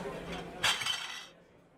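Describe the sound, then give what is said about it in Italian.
Espresso cups are thrown at great speed onto a bar counter: a bright, sharp clink halfway through with a few quick rattling follow-ups, ringing briefly before fading out. No one speaks. “Caffè espressi vengono lanciati sul bancone a grande velocità e subito finiscono preda di quegli assonnati in crisi di astinenza.”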